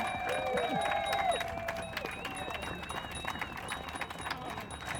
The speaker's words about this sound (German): Danke, danke, sehr schön. Großen Applaus für euch, ihr macht es super. Yeah!